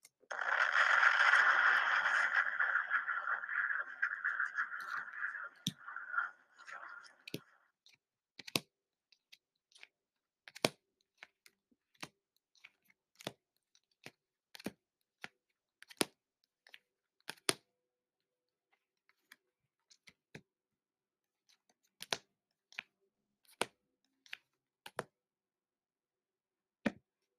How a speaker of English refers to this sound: Somebody said, "Why you shuffle the car so much, bitch? Why it matter?" I like the sound of my cards shuffling.